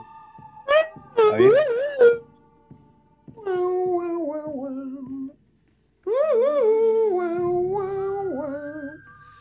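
A western-style theme plays, its wailing, howl-like melody rising and sliding in three loud phrases with short pauses between, and a low accompaniment joins near the end. No one speaks.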